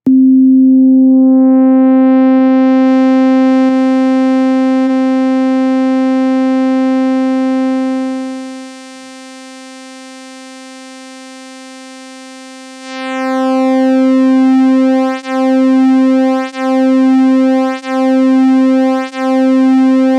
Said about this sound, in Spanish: aquí les dejo con Pulse Width Modulation con síntesis FM. La forma más complicada de hacer este, el Pulse Width Modulation, pero no por eso menos placentera, amigos. Vamos a escucharlo.